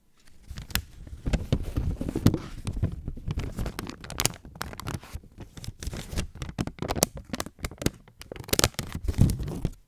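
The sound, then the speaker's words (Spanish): A piece of paper is crinkled and torn at home, continuously for about ten seconds: a dense run of dry, crackling rustles with sharper snaps mixed in, fairly loud, with no voices. “Ah, mira, tengo un papel acá”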